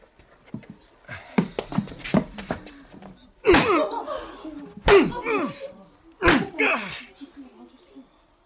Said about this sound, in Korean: 갑자기 찬물 끼얹은 듯 조용해진 교실 안은 매질 소리와 신음을 참는 석대의 거친 숨소리로 가득했다. 나로서는 처음 보는 모진 매질이었다.